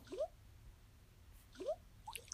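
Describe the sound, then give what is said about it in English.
A phone's 'Water' unlock sound effect as the device is unlocked: two bright, upward-bending water-drop bloops spaced about a second and a half apart, followed by a faint tinkly sparkle, all clean with no talking. “Unlock effect. Water.”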